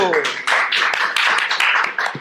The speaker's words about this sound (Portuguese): um aplauso para